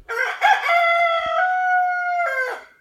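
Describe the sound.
A man imitates a rooster, giving one loud, drawn-out cock-a-doodle-doo that starts with a few sharp bursts, holds a long strained note, then breaks off at the end.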